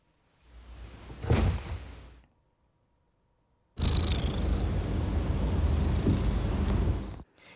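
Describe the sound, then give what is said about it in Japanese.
A cat purring sound effect, played together with a bed sound effect: a cat purrs in two stretches, a short, rumbling burst, a brief near-silent pause, then a longer, steady purr. Nobody speaks. “あ待ってあのさっきの猫と一緒に流してみようかあのベッドから猫いける”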